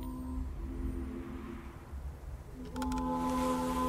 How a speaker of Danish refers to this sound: De mødes, går langsomt mod hinanden, står her i stuen. Du kan høre gulvet, der knager.